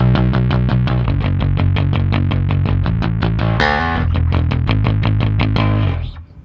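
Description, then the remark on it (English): An electric guitar played through an amp and EVH pedals at the player's normal playing setting, with steady, rapidly repeated chord strokes in a driving rhythm, slightly overdriven, then a final chord that rings out and fades. No one speaks. “This is my normal uh, playing setting.”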